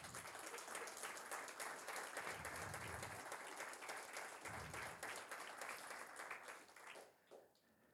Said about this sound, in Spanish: Dale un aplauso bien fuerte al Señor.